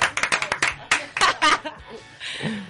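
A short burst of applause: about eight quick, sharp claps in a brisk rhythm, followed by louder bursts of laughter and voices, then a quieter stretch of murmuring.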